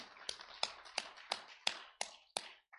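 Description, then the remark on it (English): An audience claps together for a birthday: a dense wash of hand claps with seven sharp, evenly spaced beats, about three per second, standing out above it. No one speaks. “So we will give her a hand clap, wish her a happy birthday.”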